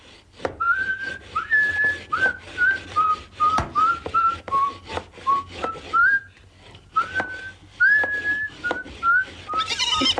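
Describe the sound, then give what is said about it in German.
A carpenter whistles a light, cheerful little tune to give himself courage as he lays wood on his workbench and begins planing, a steady run of short sliding notes with brief pauses, accompanied by occasional sharp knocks and taps. “Also legte er das Holz auf die Hobelbank, pfiff sich ein Liedchen, um sich Mut zu machen, und begann zu hobeln.”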